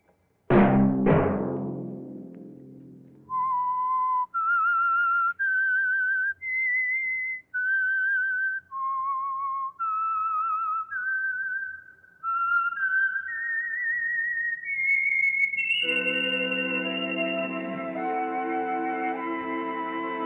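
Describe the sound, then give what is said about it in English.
The whistled signal of the Signal Oil radio program The Whistler: a clear, solo whistled melody of sustained notes stepping up and down in pitch, followed by a swelling orchestral chord that takes over at the end. “Let that whistle be your signal for the Signal Oil program, The Whistler, each Sunday night at this same time.”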